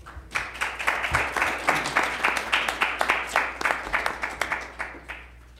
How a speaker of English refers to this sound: Uh, I will have a short announcement at the conclusion of the event, but for now, with applause, please welcome David Boaz.